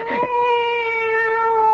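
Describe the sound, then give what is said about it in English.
A female cat named Evil lets out one long, drawn-out meow, steady in pitch and fairly loud, with no voices around it. “It's the cat.”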